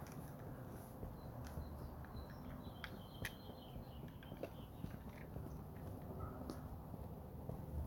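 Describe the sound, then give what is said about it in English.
Faint, scattered bird chirps and short calls sound over a steady low outdoor rumble, with a few soft knocks and rustles and no one speaking. “listen to the birds.”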